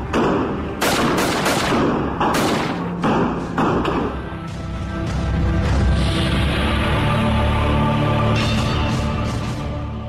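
A rapid, irregular volley of loud gunshots, around a dozen sharp cracks over several seconds, followed by a steady rumbling roar with a high hiss. No one speaks. A woman fires an assault rifle, taken from a police patrol car, at motorists in the middle of an avenue.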